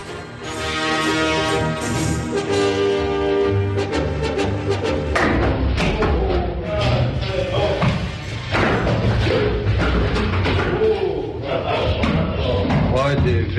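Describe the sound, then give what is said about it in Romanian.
A horse's heavy hooves clatter and thud irregularly as it comes down the stairs of an apartment building in Satu Mare during a rescue, loud, under a constant din of excited shouting and crowd noise that fills the whole recording. “Asta e un cal care coboară pe scări”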